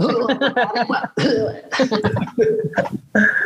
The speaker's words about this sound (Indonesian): Jadi ini sambil batuk-batuk.